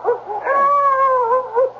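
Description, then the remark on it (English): A dog howls in one long, wavering, mournful tone, with short yelping barks at the start and end. No one speaks. “Hey, what's this? The dog.”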